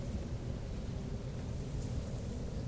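A steady, low rumbling light-storm ambience, with gusting wind and a continuous wash of rain, fairly quiet and unbroken throughout, with no voices.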